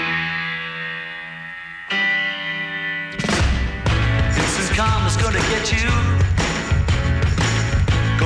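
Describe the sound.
A rock song plays loudly, opening on sustained, ringing chords before drums and the full band crash in, driving along with a steady beat under a sung vocal.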